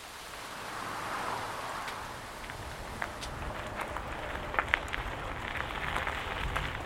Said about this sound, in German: Eine knappe halbe Stunde später schüttet es wie aus Kübeln. Der Regen zwingt mich, unter dem Vordach einer Hütte stillzusitzen.